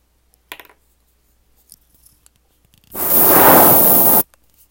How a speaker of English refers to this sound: Alright, now we got some spray deodorant.